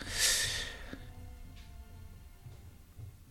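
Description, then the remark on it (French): A single short, breathy cough bursts out at the start, followed by quiet background hum with faint soft noises. “Ah, là c'est mon titi qui tousse.”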